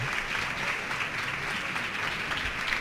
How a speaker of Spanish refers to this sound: Vaya cosa bonita, se aplaude.